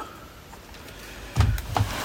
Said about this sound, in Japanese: えー、Zoom の M3 マイクトラックについてた三脚を外してそれをこの DR05 につけますね この DR05 本体の三脚穴に設置するという感じなのでノイズがすごいですが